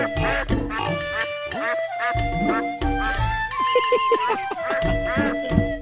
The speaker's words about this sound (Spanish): Unos patos ruin, mira.